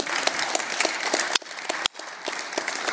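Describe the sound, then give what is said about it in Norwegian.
A crowd applauds the band's bassist steadily, a dense wash of many hands clapping at an even loudness, with a couple of brief dips before the clapping picks back up. “Ja, en applaus til”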